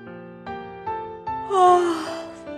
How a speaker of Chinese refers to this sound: 他的助手花大姐正趴在神探鼠的肩上，连连打着哈欠。 探长， 花大姐又打了一下哈欠，说。